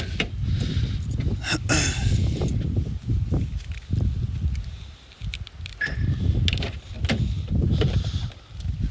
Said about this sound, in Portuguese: por que, que tem este barulho insuportável de vento e esta má qualidade na sua produção do podcast? Ah, porque eu não consegui gravar em casa Nada, nada. E o único tempo que eu tenho agora é de pegar o carro e ir trabalhar.